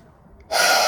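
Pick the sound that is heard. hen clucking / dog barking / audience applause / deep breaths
deep breaths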